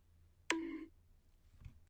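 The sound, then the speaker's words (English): A single loud, hollow bonk like a coconut striking someone's head, with a brief ringing, resonant tone that fades within half a second, followed by a faint soft thump. “I always wanted to hit somebody over the head with a coconut.”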